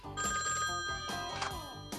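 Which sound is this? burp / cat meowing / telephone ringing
telephone ringing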